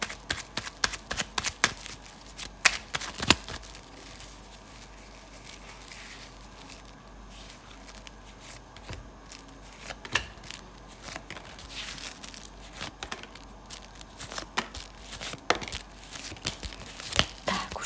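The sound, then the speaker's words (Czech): Tarot cards being shuffled for a reading: irregular papery flicks, slaps and riffling bursts that come and go for several seconds, with quieter rustling in between and no one speaking. “Já už se dívám na vaše fotky, míchám u toho karty a my se spolu podíváme, co nám Tarot poví o vás dvou.”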